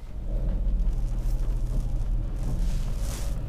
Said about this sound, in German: Ist halt auch gerade, ist das Feierabendverkehr jetzt? Also das ist Vierer Verkehr, ja.